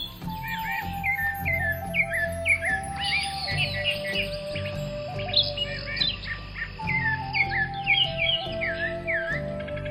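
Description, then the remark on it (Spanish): Many birds chirp and whistle in dense, overlapping song in a jungle, over a steady low hum, like a lively jungle chorus, continuous throughout with no voices. “Allí quiso acostarse un rato y se entretuvo horas completas al escuchar el canto de los pájaros.”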